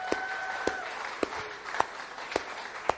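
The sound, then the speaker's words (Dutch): An audience at a worship service applauds the singing in a steady, dense wash of clapping, with about six sharper, evenly spaced claps punching through at a regular beat. The applause is moderate in loudness and continues throughout. “Ja, laten we eens een applaus geven voor de zang die hier allemaal plaatsvindt.”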